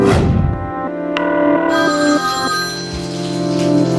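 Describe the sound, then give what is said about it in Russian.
A telephone rings loudly in an apartment, a steady tonal ringing that carries on for several seconds without pause, with no voices over it; intruders are calling to check whether the owners are home. “Злоумышленники дважды за вечер звонили в квартиру Комаровых по телефону, чтобы убедиться хозяева дома”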